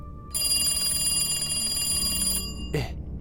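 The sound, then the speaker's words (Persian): A telephone rings loudly for about two seconds with a sustained metallic bell tone, then cuts off abruptly, followed by a brief clunk like a handset being moved. “که یهو تلفن زنگ خورد”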